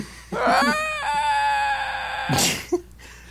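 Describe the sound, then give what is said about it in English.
A man's voice lets out a loud, drawn-out, strained yell that imitates a horse crying out, sustained for about two seconds before breaking into a harsh, breathy rasp. “I, st- I still desperately want to edit when the horse yells into the sky, just a man's voice going,”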